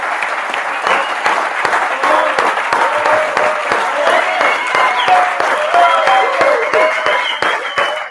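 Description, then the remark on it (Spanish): A large live audience at the Teatro Soco breaks into loud, sustained applause at the start of the live show Política para Adultos, dense overlapping clapping running for several seconds with scattered cheers and whoops rising above it. “Un aplauso grande para que sepan que estamos...”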